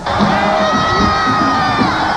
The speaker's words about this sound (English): Police say more than 2 million people jammed into lower Manhattan to cheer the Mets.